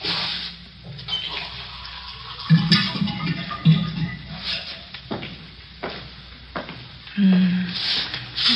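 Water splashes and pours into a glass, with a rising gurgle in a few bursts and light clinks and knocks between pours. No one speaks.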